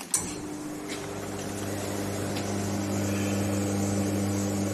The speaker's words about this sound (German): Hört ihr, wie der Espresso langsam in die Tasse ich wollte gerade sagen rieselt, aber äh, er läuft natürlich. Ja, tröpfelt auch nicht.